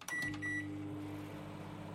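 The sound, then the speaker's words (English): A transformer microwave leg, set to a 30-second timer with nothing inside, starts up with a couple of short electronic beeps, then settles into a steady low hum as it runs, with no one talking. “Your transformer microwave leg actually seems to microwave.”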